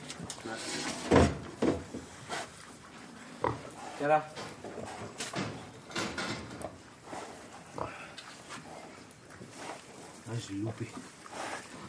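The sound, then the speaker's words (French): Pigs grunt and snort in short irregular bursts, with a few louder squeals, while people talk in the background and occasional clattering knocks sound around them. “Que quand un cochon il se met à, à partir vers toi, tu arrête pas.”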